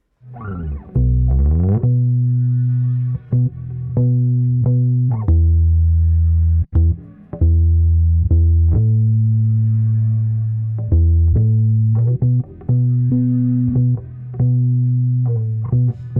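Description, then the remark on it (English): A solo bass guitar plays a melodic line of sustained low notes, shifting pitch at a steady, unhurried pace with occasional quick plucked runs, full-toned, with no talking. “So let's let's hear that uh, melodic bass line then”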